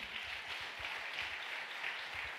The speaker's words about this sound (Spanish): ¿Cuánto un aplauso fuerte al Señor?